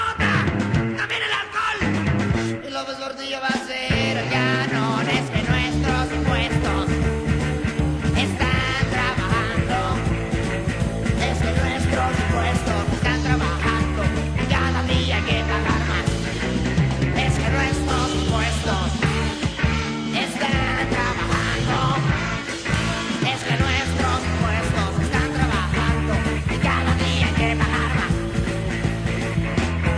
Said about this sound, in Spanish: ya cuando escuchamos la canción lo entendimos perfectamente.